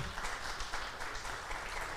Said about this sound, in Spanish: Muy bien, vamos a dar un aplauso al Señor.